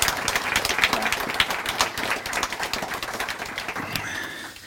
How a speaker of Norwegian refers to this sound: Shabana Rehman, hjertelig velkommen. Gi henne gjerne en applaus.